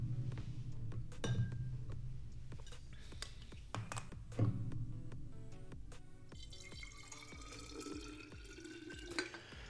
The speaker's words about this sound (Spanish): Me quedé sin agua, voy a echarme más agüita.